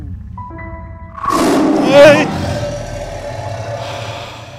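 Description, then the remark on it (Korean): A deep, throaty rumble swells up loudly after about a second, peaks briefly like a revving roar, then settles into a lower, steady growling drone that lingers to the end. “어, 자동차 소리 같은데. 오토바이 아니야?”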